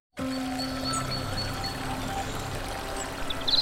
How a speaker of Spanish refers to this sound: Ese momento en que te descalzas, metes un dedo en el arroyo